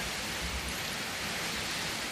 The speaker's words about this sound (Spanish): Bueno, vamos a escuchar tantito la lluvia, aprovechando el viaje, mire la tormentota que se está cayendo sobre Aquí afuera de la poderosa